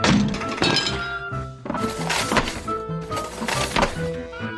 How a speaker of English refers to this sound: Then she dropped her sister's marbles on the kitchen floor said her father.